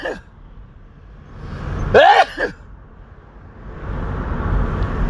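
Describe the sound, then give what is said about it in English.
A single loud sneeze bursts out midway, a rising voiced gasp snapping into a sharp explosive release, over the steady low rumble of a moving car. “Oh shit. I gotta sneeze.”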